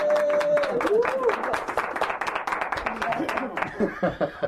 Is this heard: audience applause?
yes